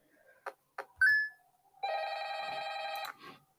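A few sharp clicks and a short beep, then a telephone in a video game rings once in a buzzing, trilling electronic burst lasting about a second, clear with no talking.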